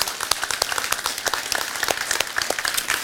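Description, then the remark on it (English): A church audience at Walk Church in Las Vegas claps together for a pastor and his wife in a steady, dense patter of many hands, sustained applause filling the whole stretch at moderate loudness with no voices standing out. “Um, would, you, would, would you family just clap for this awesome couple right here?”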